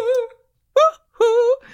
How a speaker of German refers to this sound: das ist von …, …